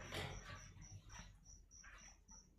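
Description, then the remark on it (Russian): Faint dog barks, four or five of them at an irregular pace, over a quiet background with a steady high-pitched whine. “Здесь собак много у всех.”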